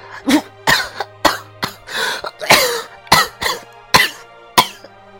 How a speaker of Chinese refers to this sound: 说到了这里，刘玉迪开始剧烈的咳嗽，然后全身开始不由自主的抽搐起来。